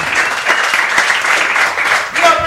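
Steady, dense applause from a group of people greeting a doctor's arrival, a continuous crackle of many hands clapping at once, fairly loud throughout and with no clear pauses.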